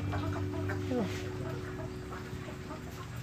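Laying hens on a laying-hen farm cluck and murmur in a busy flock, with one brief rising squawk early on, all set against a steady low mechanical hum that runs throughout.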